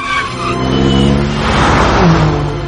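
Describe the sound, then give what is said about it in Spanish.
A loud motorcycle engine, ridden at full speed, revs and drops in pitch as it brakes at an intersection, then its tone rises again briefly. The whine is steady, with no voices. “Frena en un cruce.”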